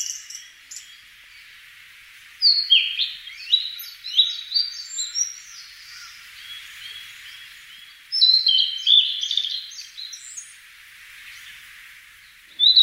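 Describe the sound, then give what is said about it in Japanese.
A blue-and-white flycatcher at Rikugien Garden in Tokyo, Japan, sings in the eastern Japan style: two clear, whistled phrases of high, sweet notes with quick trills, separated by a pause, then begins again at the end, over a steady faint hiss. “六義園（東京都）のオオルリ”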